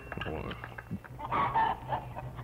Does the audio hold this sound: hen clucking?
yes